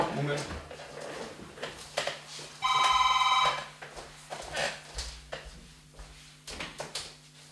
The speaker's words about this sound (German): Oh, jetzt klingt gerade das Telefon. Ich schneide es dann gleich mal raus.